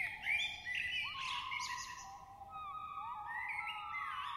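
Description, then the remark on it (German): Several songbirds whistle, chirp and trill at once, their clear overlapping phrases rising and falling in a steady, busy chorus with no voices, some calls bright, others softer. “Musizieren, Pfeifen, Zwitschern, Tirillieren. Die Fülle des Wohllauts hat das Zeug zur Einstiegsdroge.”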